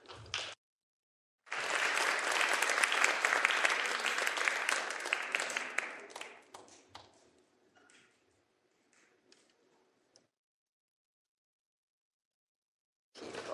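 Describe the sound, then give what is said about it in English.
A burst of audience applause welcoming volunteers from a small group as they come down to the front, many hands clapping, loud and dense at first, then thinning into scattered claps and fading away into silence after several seconds. “So please, with a warm round of applause, welcome them to right down here.”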